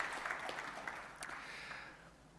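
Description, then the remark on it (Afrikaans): A crowd claps their hands in a soft, dense patter of overlapping claps with a few sharper slaps standing out, thinning and fading gradually toward the end. “Geef hulle ook 'n lekker hande klap toe.”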